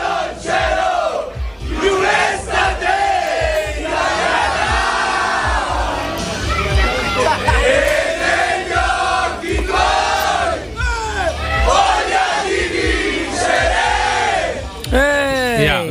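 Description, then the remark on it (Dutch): A rowdy group of men, Italy's national football team players and coaches with Mancini and Gianluca Vialli present, chants and cheers loudly and without pause, voices overlapping in sung shouts and whoops, energetic like a celebrating football team. “Nou, je hoort eh, wat lijkt op dronken voetbalsupporters na de wedstrijd.”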